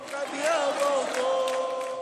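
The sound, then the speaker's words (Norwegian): A large crowd of Brazilian fans cheers and chants for the home team at the Olympic opening women's handball match against Norway, Arena do Futuro, Rio, in August, a loud, continuous roar with many voices holding wavering, sung-out tones over a dense wash of noise. “Brasil-fansen jubler for hjemmelaget under OL-åpningen mot de norske håndballjentene i august i fjor.”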